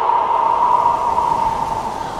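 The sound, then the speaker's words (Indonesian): Steady, rushing wind blowing through dry grass and trees, with a faint whistling tone running through it, holding at an even, fairly loud level for a couple of seconds with no voices. “Mereka bertiup melalui rumput kering dan terdengar suara mereka bertiup melalui pohon-pohon sehingga daun-daun”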